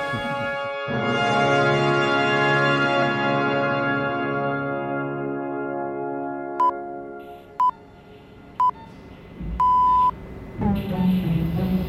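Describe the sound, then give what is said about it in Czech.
A radio time signal played at half speed: three short, steady beeps about a second apart, then one longer beep, sounding over a loud, buzzing, harmonic drone that fades partway through. “Jestliže časové znamení v rozhlase je 1000 Hz, tak tohle je v podstatě napůl zpomalené časové znamení v rádiu.”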